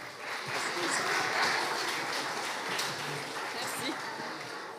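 A steady burst of audience applause, dense clapping at an even loudness that carries on for about five seconds without a break.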